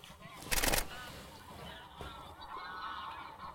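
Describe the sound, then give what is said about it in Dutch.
Geese honk in alarm as they panic, a loud sharp burst near the start followed by a continuing chorus of harsh, overlapping calls. “Hoor je de oh. gouden ganzen paniek hier?”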